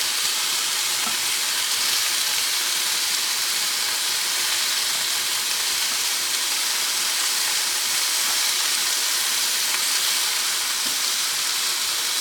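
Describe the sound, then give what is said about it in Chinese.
Pork belly sizzling steadily in a hot pan as one side finishes frying before being flipped, a dense, crackling hiss that stays loud and even throughout, with tiny pops scattered through it and no voices. “那一面煎的差不多之后，我们就可以来翻面。”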